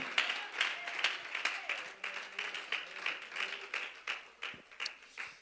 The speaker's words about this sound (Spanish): Si ese aplauso es para Él, suelte sus dos manos y que sea con todo su corazón.